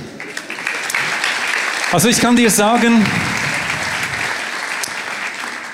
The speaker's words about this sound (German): Genau, ich glaube, Applaus für dich.